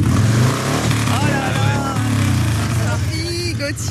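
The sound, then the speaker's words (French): A loud Harley-Davidson firefighters' motorcycle engine, in the morning at Ivron, rumbles with a deep, throbbing idle and slight revs throughout, with faint voices under the engine noise. “effectivement, c'est une Harley Davidson que nous avons avec nous ce matin à ivron. une belle Harley de pompiers.”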